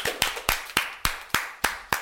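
Brief applause during a radio and TV broadcast, welcoming the presenter of a new segment: about eight sharp, evenly spaced hand claps in a quick steady rhythm, fairly loud, with no voices over them.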